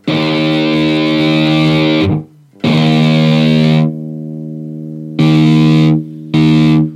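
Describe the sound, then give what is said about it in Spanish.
Loud, heavily distorted electric guitar chords ring out in four bursts through a noise gate set fully tight that is gradually being opened; each sustained note is cut off abruptly into silence as the gate snaps shut between them. “O sea, esto sería una puerta, una puerta de ruido apretada a tope. Voy a ir, voy a ir abriéndola.”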